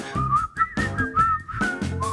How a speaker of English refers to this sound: hard to tell if that's me whistling or the song. it was me.